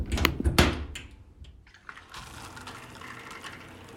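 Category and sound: household object, shower water running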